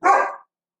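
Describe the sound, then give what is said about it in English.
A single sharp, loud dog bark, cutting off abruptly with silence after it. “That's that's my dog.”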